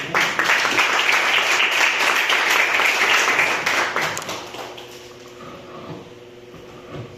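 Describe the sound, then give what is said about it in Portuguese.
An audience applauds together in praise of the Lord, a dense, steady wash of clapping that holds strong for about four seconds before thinning and fading out, leaving a quiet room tone. “E eu agradeço a oportunidade das palmas que adoram ao Senhor.”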